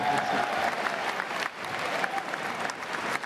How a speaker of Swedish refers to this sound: Publiken jublar. En del sätter sig upp och applåderar. Någon gråter.